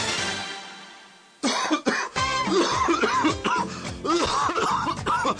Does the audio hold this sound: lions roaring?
no